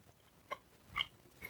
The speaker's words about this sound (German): Und wenn ihr sicher schon raspeln hört, ich melde mich ja hier aus dem Hotel in Stralsund und ich habe unten beim Einlass habe ich Stralsunder Marzipan gekriegt und ich würde jetzt hier mal live reinbeißen. Mm. Auch geil.